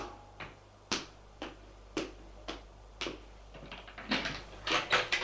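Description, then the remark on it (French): Footsteps along a corridor, a steady series of sharp taps about every half second, then a quicker, louder flurry of steps toward the end, with no voices. “Des pas dans le couloir.”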